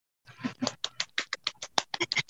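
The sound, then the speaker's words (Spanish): A voice imitates applause to welcome a guest, with a quick, rhythmic burst of about a dozen breathy, clapping-like syllables, fairly loud and steady, with no other talking. “Ah, ah, simulando los aplausos.”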